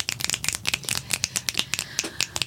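A small group claps for a couple of seconds, the quick sharp claps overlapping in an uneven, crisp patter at a moderate level with no talking.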